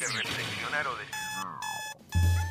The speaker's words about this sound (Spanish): Sí, sonó el despertador.